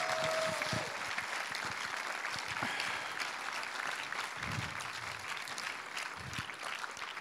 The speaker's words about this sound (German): lass uns Ihnen nochmal einen richtigen Applaus geben. Vielen, vielen Dank.